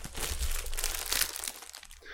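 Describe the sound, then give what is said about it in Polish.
Plastic wrap crinkles and crackles continuously for a couple of seconds as a large Pirelli calendar still in its foil wrapping is handled, with a brighter rustle near the end and no talking. “Więc on jest w folii i na razie tak go wam pokażę.”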